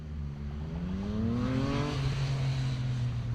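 A car drives past on a busy road over the Inn bridge into the town centre, its engine hum climbing in pitch and then dropping as it goes by, over a steady wash of traffic noise. No one speaks.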